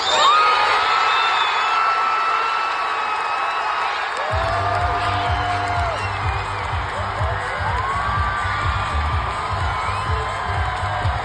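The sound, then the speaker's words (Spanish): A huge crowd packed into Federation Square at the FIFA Fan Fest in Melbourne roars and cheers in celebration of a football goal against England, dense overlapping shouts and whoops throughout, with a deep rumbling low-end swelling in partway through as the cheering continues loudly. “Hay imágenes del FIFA Fan Fest de Melbourne en el que la plaza de la Federación, repleta de gente, brincó para celebrar ese gol que supo a gloria a toda la nación.”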